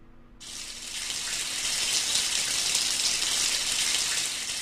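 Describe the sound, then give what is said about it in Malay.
A shower tap in a toilet opens abruptly and water starts gushing, a steady bright hiss of running spray that continues loudly and evenly, with no voices. “Bunyi orang buka paip hujan”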